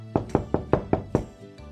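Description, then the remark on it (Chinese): Six quick knocks on the wooden door of the little turtle's house in a steady, even rhythm, each a sharp hollow thud, followed by a brief quieter tap at the end. No voices. “小趣和甜甜一起敲起了门，小乌龟依旧没有开门。”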